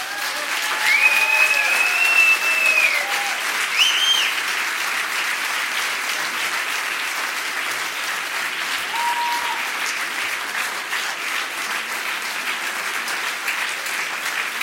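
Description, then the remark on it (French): Steady audience applause for a performer fills the whole stretch, a dense, continuous patter of many hands clapping, with a few brief whistles and cheers rising above it near the start. “Et vous pouvez reprendre les applaudissements encore plus forts”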